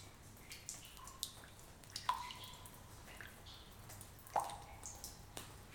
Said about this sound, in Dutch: De grot laat die druppels los. Stel je voor dat jij die grot bent en dat je bij het vallen van de druppels loslaat wat je kwijt wilt.